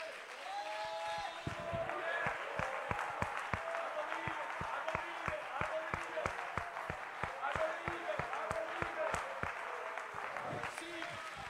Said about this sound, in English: Remain standing. Keep clapping your hands and give God praise.